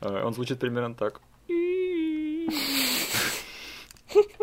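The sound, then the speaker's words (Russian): A man speaks briefly, then vocally imitates the stock baby-cry sound used in films, a sustained, wavering wail that breaks into a raspy, breathy sob, followed by a short laugh. “Блин, ты, может, тоже это услышал, но там был такой прямо стоковый звук младенца, я не знаю, как еще это описать.”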